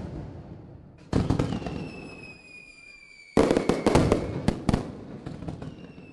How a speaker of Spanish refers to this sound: Para reconciliar a nuestros animales de compañía con el sonido de la pólvora existen un par de caminos.